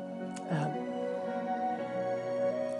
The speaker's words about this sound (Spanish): hay mucho ruido, ¿escuchas? No es un helicóptero, son obreros que están trabajando. Hicieron un muro muy fuerte eh, y el piso y va mucha roca.